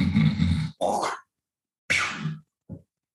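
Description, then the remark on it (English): A voice imitates a loud, gravelly throat hawk in two harsh bursts, followed after a pause by another raspy burst and a short wet spitting sound, with no speech, imitating spitting out the window of a train. “I pop open the window to spit out the window of the train, not realizing that her window two seats back was open.”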